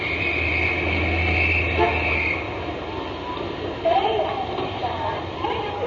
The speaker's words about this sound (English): This is the way the Ginza sounds on a Saturday night, typical Saturday night in spring. Japanese traffic sound. Man, these guys drive like uh, kamikaze pilots, if you may excuse the expression.